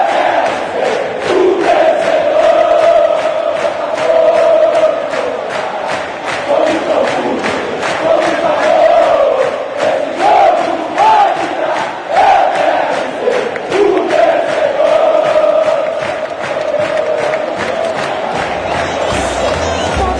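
A large crowd of football fans chants "esse jogo vai virar" together in a loud, sustained, rhythmic sing-song that carries on without pause for the whole stretch, with no separate speaking voice over it.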